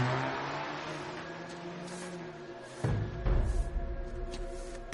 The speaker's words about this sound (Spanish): El taxista se aleja.